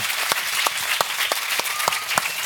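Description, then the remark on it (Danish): A small group applauds, steady overlapping claps with a few louder individual hand claps standing out at a regular pace, and no one talking. “skal vi ikke lige give ham en hånd?”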